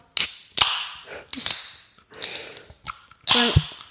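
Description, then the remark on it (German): Clicks and snaps of a drink can's tab being worked, each with a short fizzy burst, ending in a louder pop and a sustained carbonated hiss. No one speaks. “Und ähm, dann wollen wir mal vielleicht aufmachen und eine Zischung machen, oder?”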